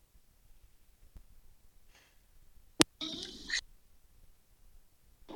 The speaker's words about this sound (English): I'm sorry, my alarm went off.